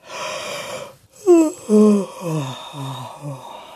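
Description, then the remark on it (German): A tired woman gives a drawn-out yawn: a breathy intake followed by a voiced, wavering moan that slides downward in pitch and trails off, with no talking around it. “Sie gähnt und geht ins Badezimmer.”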